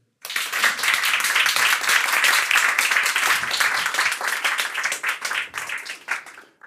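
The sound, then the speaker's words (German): An audience breaks into sustained applause welcoming a guest, a political scientist and publicist, with many hands clapping in a dense, crackling wash that holds steady for several seconds, then thins into scattered claps before fading out. “Großer Applaus auch für dich, bitte.”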